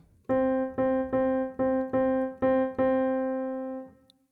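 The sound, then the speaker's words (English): A single pitched instrument note repeats seven times in a lilting, uneven swung eighth-note rhythm, with the eighth notes on counts one, two and three, fairly loud, the final note held and ringing out before it stops. No one speaks. “We're going to move our eighth notes to counts one, two, and three.”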